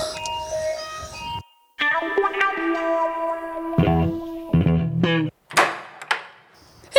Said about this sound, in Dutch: Even kijken. De bel.